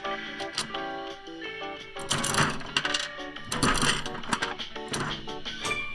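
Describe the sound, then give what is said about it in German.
A coin clinks into a two-sided gumball machine with a metallic ring, then the left-side crank is turned in a few loud, grinding, ratcheting bursts, dispensing a yellow gumball, with no talking. “Muss ich da jetzt so eine Münze rein?”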